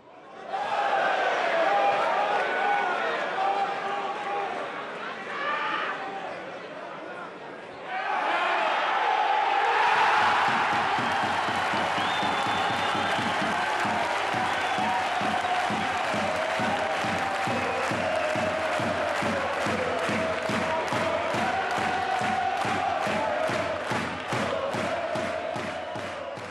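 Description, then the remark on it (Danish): A big football stadium crowd at Valby Idrætspark roars and cheers continuously and loudly as Frem's forwards make several attempts on goal against their rivals from Amager, with a steady rhythmic clapping or chanting pulse building through the second half. “Flere nærgående forsøg fra fremmerne får tilskuerne helt op på stolene.”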